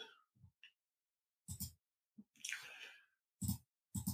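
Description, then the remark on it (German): A few short, sharp clicks, like a computer mouse, come at irregular intervals with a brief rustling, squeaky noise between them. It's fairly quiet, with no talking. “Jetzt aber, Schnitt. Ich klicke jetzt.”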